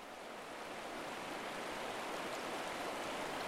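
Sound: flowing river water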